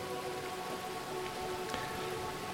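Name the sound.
rain falling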